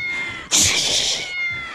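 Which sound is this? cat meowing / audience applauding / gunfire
cat meowing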